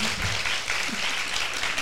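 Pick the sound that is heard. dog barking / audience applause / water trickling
audience applause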